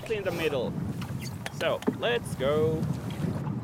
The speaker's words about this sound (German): Ich sitze vorne im Kanu. Da habe ich nicht nur die bessere Aussicht, es ist auch einfacher. Ich muss nämlich nur paddeln und das Boot antreiben.